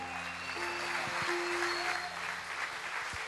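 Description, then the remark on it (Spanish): An audience claps steadily for a few seconds in applause to the King (God), a dense, sustained wash of applause with faint held musical tones and a few low thumps underneath. “Dale fuerte ese aplauso al Rey.”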